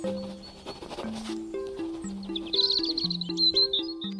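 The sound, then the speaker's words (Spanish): Birds chirp in quick, high twittering bursts during the second half, layered over a simple melody of steady low tones stepping up and down. No one speaks. “los pájaros. ¿Los pájaros chiflan?”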